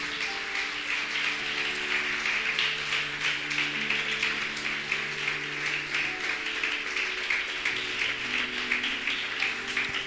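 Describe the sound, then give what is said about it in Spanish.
An audience applauds the Lord Jesus steadily for about ten seconds, a dense, even wash of many hands clapping, with faint sustained low tones running underneath. “Un aplauso grande al Señor Jesús.”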